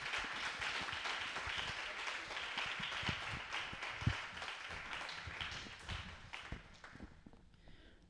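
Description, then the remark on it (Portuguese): A church audience applauds God steadily, many hands clapping in a dense, continuous patter with a few sharper claps standing out, holding fairly loud before thinning out near the end. “Aplauda mais uma vez ao Senhor Deus.”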